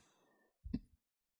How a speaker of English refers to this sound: Bro, the chair was making so much noise that it actually picked up in the mic.